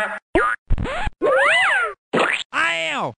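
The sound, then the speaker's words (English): A rapid string of six cartoonish video game sound effects: springy boings, a wobbly warble, sliding whistles and a meow-like squeal, each short, loud and separated by brief silences. “Yeah, those are all from Earthworm Jim,”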